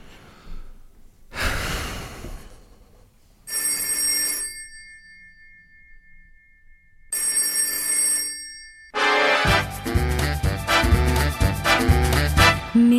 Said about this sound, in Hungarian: Minden éjszaka telefonom csenget, Alig várom, hogy megtörje a csendet, Hogyha cseng szívem zeng, végre felhívő, Persze hangomon ez nem érezhető.